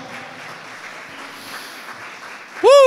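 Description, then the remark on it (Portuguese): An audience applauds the Lord in celebration of salvation in a steady, dense wash of clapping that holds at an even level, then a loud, rising voice cuts in over it right at the end. “Vamos aplaudir ao Senhor por essa salvação?”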